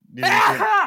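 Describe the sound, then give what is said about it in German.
A single loud sneeze bursts out as a strained, voiced cry that rises quickly and cuts off after under a second, with a brief spoken word just before it. “den Gesundheit.”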